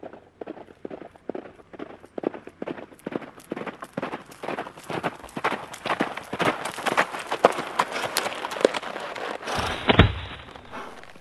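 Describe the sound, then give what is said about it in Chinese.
Rapid, rhythmic hoofbeats of a galloping horse carrying an envoy who rushes an imperial edict to a military camp, starting faint and growing louder and denser, ending with a heavy thump. No voices are heard. “皇帝听说了卫青的功绩，派使者快马加鞭地送圣旨到了营地。”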